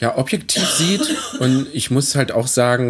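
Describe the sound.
A woman coughs briefly in the background, faint and partly masked, while someone in front talks steadily in German over it.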